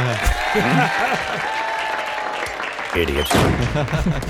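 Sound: round of applause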